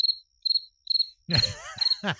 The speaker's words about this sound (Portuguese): Cara, de novo, de novo, de novo, tá de novo. procurando o grilo. Ó lá, de novo, ó.